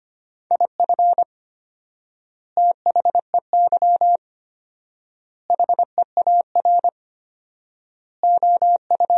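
A single steady-pitched tone keys on and off rapidly in Morse code at 25 words per minute with fourfold word spacing, short and long beeps clustered into quick groups separated by long, even pauses, with no voices.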